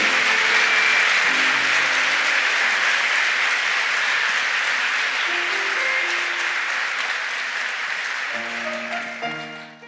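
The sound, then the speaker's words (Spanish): A crowd applauds steadily and loudly for about ten seconds as a form of congratulation, a dense wash of clapping with soft sustained keyboard notes underneath, fading slightly at the end. “¿Qué tal si les aplaudimos como una forma de felicitación?”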